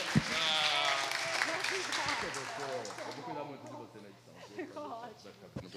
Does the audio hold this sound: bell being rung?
no